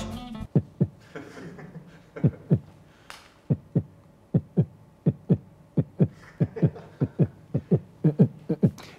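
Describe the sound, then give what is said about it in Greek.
A dramatic synthetic heartbeat thumps steadily and loudly, paired beats repeating for several seconds in a tense, suspenseful rhythm, with no one speaking over it. “Που έρχεται ο λογαριασμό και είναι το καρδιοχτύπη, το ψεύτικο”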